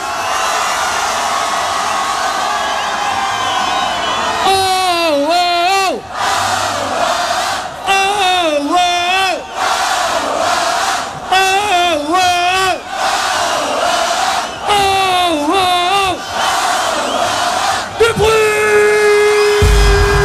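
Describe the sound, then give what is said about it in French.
A large live crowd at an event in Marseille roars and cheers loudly and continuously, urged to make as much noise as possible, with a rhythmic chant or call rising and falling about every few seconds above the steady wall of noise. “On va faire un maximum de bruit Vous êtes entendus dans toute la France Faites du bruit”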